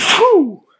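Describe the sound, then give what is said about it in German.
A single loud sneeze: a sharp breathy burst followed by a voiced, falling cry that trails off quickly into silence. “Gesundheit.”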